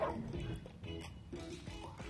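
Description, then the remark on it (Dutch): A dog named Ferocious gives several sharp, yappy barks in uneven bursts, fairly loud, with a faint whimpering quality between them and no one talking. “Als je hem hoort blaffen, begrijp je hoe hij aan die naam komt.”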